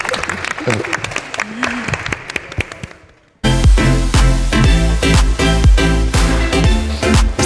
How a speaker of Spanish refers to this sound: Pues muchas gracias a todos. Muchas gracias a vosotros. Muy bien, un aplauso para terminar.